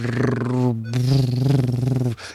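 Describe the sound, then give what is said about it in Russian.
A voice imitates a deep, guttural slam brutal death-metal growl in two loud, sustained bursts, a short one then a longer one after a brief pause, rough and throaty with no words. “такая музыка, и они просто рычат.”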